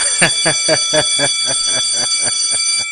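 A small bell rings rapidly and steadily, about a dozen quick strikes over three seconds, its bright, high-pitched tone sustaining throughout without any talking.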